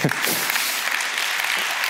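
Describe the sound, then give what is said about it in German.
An audience at a talk claps steadily, a dense, even wash of many hands at a consistent, fairly loud level throughout, with no voices standing out. “Aber ich ich muss ganz transparent, ja, klatschen die ruhig.”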